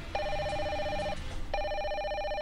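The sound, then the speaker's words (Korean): A phone rings in two loud bursts of bright electronic trilling separated by a short pause, with no voices present; a man is calling after knocking on the room door got no answer. “그렇게 진짜 죽을 뚱살뚱 발버둥치다가 갑자기 전화벨에 마치 마술처럼 가위에서 확 풀렸다.”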